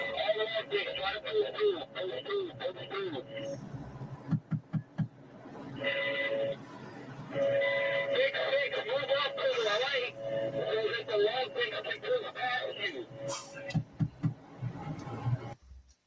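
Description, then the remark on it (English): A Mark 19 automatic grenade launcher fires multiple grenades in short bursts of rhythmic, dull thumps, one burst partway through and another near the end, amid ongoing radio-like chatter and voices. “That little thump thump thump you guys were hearing was the sound.”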